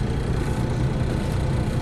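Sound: city bus engine idling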